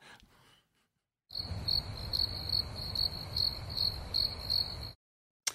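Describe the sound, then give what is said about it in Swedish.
Crickets chirp steadily in a rapid, regular pulsing trill over a low background hum. The sound starts abruptly, holds for a few seconds with no voices, then cuts off. “Kan, kan, vi, kan vi lägga in syrsor här just nu?”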